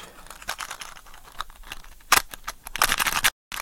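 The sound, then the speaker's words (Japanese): Small clicks and rattles from a matchbox, then a sharp rasping strike followed by a longer scratchy, hissing burst as a match catches, ending abruptly, as a match is struck to light a burner fitted with a windscreen. No one speaks. “マッチ箱めっちゃいい音するよね。”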